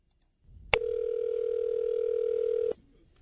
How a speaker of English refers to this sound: He made the first phone call to my mother, and it sounded like this.